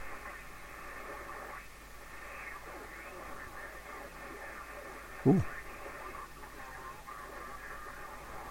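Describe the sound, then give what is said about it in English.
Steady hiss and crackly static from an HF amateur radio receiver as it is tuned in search of a voice signal, with shifting whistles and warbling tones drifting through; a voice briefly exclaims once partway through. “Let's see if I can get a voice signal so you can hear how it sounds.”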